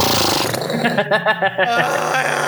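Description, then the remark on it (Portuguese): A person imitates a horse snorting: a breathy rush of air turning into a rapid, fluttering vocal rumble of several quick pulses, fairly loud, with no speech over it. “Ai, fungada de, de cavalo é tipo.”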